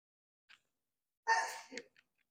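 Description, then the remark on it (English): A single sneeze: a quick faint intake of breath, then a sharp, breathy burst that trails off fast, with no talking around it. “Bless you.”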